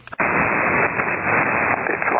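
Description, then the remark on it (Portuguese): A steady, loud rush of radio static during showery, rainy weather hisses in abruptly after a brief moment of near-silence and holds constant, with a slightly muffled, band-limited tone and no voices. “Eu tô vendo um pouco de estática, mas não muito.”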